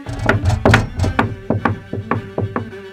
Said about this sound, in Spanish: Zapateando fuerte, pues traía suecos.